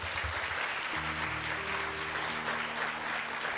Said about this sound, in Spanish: Dele un aplauso más fuerte a Dios.